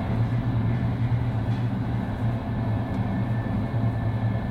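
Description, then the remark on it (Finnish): A moving train rumbles steadily, a continuous deep drone with a faint higher hum on top, holding the same loudness throughout with no voices. “Hei, onko sulla mitään hajua, miten tämän junan voisi pysäyttää?”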